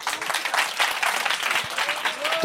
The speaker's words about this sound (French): Attendez, on va faire le clap de militant Dragon Ball, clap. Eh les gars, on applaudit,